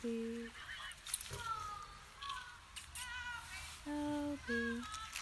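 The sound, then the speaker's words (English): A pair of paradise shelducks, chased by an unleashed dog, honk repeatedly: loud, nasal calls in short bursts, with higher squeaky calls answering between them against a faint outdoor background. “He's in futile pursuit of a pair of paradise ducks.”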